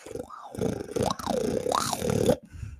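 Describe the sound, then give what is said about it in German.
A continuous beatboxed snort bass, a low nasal rumble whose tone sweeps up and down in wavy arcs as the mouth shape changes, such as forming an O, loud, with a short pause near the end. “Das ist eigentlich äh, die Snort Base.”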